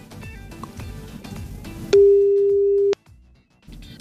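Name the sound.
telephone ringing tone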